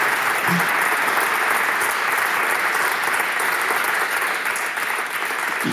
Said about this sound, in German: Und auch, äh, bevor ich jetzt die Runde für Fragen öffne, bitte ich mal einen kurzen Applaus für, den, äh, für Paul Griesei ähm, für diese erste Fragenrunde. Ich hoffe, du hörst das durchs Mikrofon.